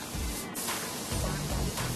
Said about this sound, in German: In der Sprühkabine lackiert der Azubi nun das Teil in drei Schichten übereinander. Zuerst die Grundierung, dann kommt der Basislack drauf und zuletzt dann der Klarlack.